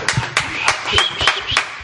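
Short burst of hand clapping, about six sharp, evenly spaced claps over under two seconds, with faint voices and laughter murmuring underneath.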